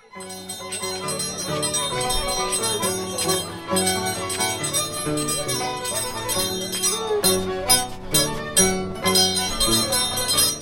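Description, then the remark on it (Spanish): Steel blades of a traditional scissors dancer (danzak) clang together during a celebration in a steady, bright metallic ringing, loud, layered with sustained tonal accompaniment throughout, with no voices. “Como parte de la celebración, escuchamos el sonar de las tijeras de los tradicionales danzak o danzantes de tijeras,”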